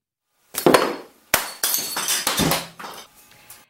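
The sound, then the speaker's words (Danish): Ceramic crockery smashes loudly: one sharp crash, then a second impact followed by a rapid clatter of shards scattering and settling. No voices. “Men jeg kan forhåbentlig ikke smadre noget gennem radioen.”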